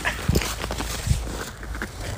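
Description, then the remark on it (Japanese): A dog, Tōichirō, gives two short barks about a second apart toward the opposite bank of a river, against steady outdoor background noise. There is no talking. “向こう岸に向かってなぜか吠える統一郎くんでした”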